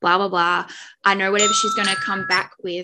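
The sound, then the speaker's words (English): A medication reminder alarm chimes with steady, sustained bell-like tones partway through, partly under continuous talking. “that's my alarm to take my medication.”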